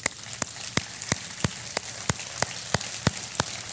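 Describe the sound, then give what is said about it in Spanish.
An audience applauds: a dense, steady patter of many hands with louder, evenly spaced claps punching through about three times a second. No one speaks. “Vamos a darle un aplauso a esas mujeres, sí, sí.”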